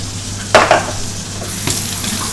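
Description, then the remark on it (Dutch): Meat and sausages sizzle steadily in a frying pan, a constant crackling hiss, broken by a few sharper scrapes and clatters as the food is stirred or moved. No one speaks. “ik ga eerst even het vlees redden.”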